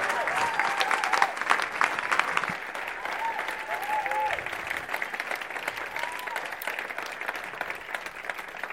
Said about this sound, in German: Steh mit mir auf, lasst uns ihm einen Applaus geben und lasst uns ihm hier auf die Bühne willkommen heißen.